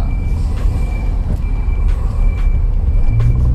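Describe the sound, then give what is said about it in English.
Heavy road traffic in a queue rumbles steadily, with large trucks idling and short hissing bursts like air brakes releasing, plus a faint high tone running through the drone. “That's hold on a minute, there's a minute of traffic queue here.”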